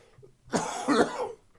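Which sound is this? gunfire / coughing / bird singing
coughing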